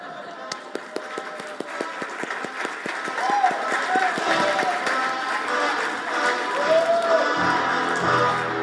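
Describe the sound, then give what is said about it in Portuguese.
Crowd applause in a church as Sylvester Stallone is welcomed: sharp, rapid claps at the start that blend into a steady, loud wash of clapping, with voices cheering and whooping over it. “Vamos receber agora, com muitas palmas, o Sylvester Stallone.”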